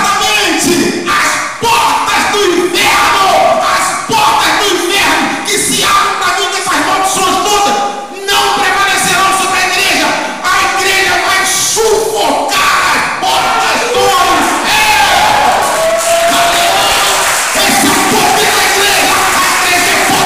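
A large audience shouts loudly and continuously, a dense wall of overlapping voices crying out together for the whole stretch, with no individual words standing out, answering a preacher who urges them to shout as loudly as they can.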